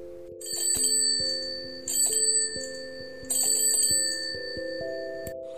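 An elderly man on a winding road rings his bicycle bell at a motorcyclist ahead of him in three bright bursts, each trailing off into a sustained metallic shimmer, over a steady backdrop of low, stepping musical tones. No one speaks.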